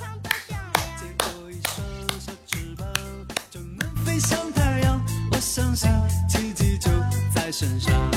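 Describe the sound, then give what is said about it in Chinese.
Sparse clapping dubbed in by the host himself, a thin smattering of sharp hand claps, mixed in with a steady, rhythmic musical backing with bass notes. The level stays fairly even and no one speaks. “我是真的可怜，这掌声都是我自己配的。”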